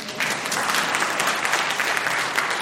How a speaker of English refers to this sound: Let me take the question to the other side. Are you allowed to applaud.